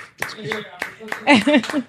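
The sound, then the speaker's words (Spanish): A few scattered, sharp handclaps ring out, spaced unevenly amid loud, animated voices talking over them. “Coño, un, un aplauso.”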